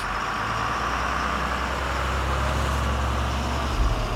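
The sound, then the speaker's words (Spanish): A military bus engine runs steadily, a continuous low rumble with a broad road-noise hiss, loud as if heard from inside the vehicle, with no voices. “Se sentó del lado derecho del autobús militar.”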